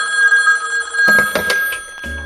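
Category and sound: signal or alarm, smartphone ringing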